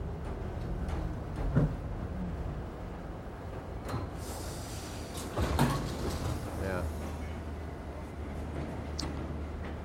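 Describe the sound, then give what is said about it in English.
Steady low rumble inside a moving train riding back to Manhattan, with occasional clanks and thumps and a sliding-door sound, while muffled voices murmur faintly in the background. “So we are riding back to Manhattan.”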